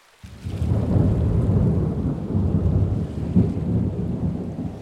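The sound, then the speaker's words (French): A heavy thunderstorm roars with a dense, steady wash of pouring rain and deep rumbling thunder, loud, starting abruptly after a brief silence and sustaining throughout. “Lors de cette édition, la météo est déchaînée.”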